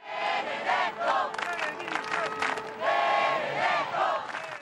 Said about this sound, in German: überall, wo er auftaucht, Benedetto-Rufe. Der Papst als Popstar.